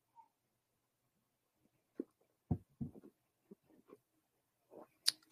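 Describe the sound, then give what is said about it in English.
Quiet sipping and swallowing of sparkling water: a few soft wet gulps and clicks spaced over several seconds, ending with a brief airy hiss. There's no talking. “I just took a sip of my sparkling water.”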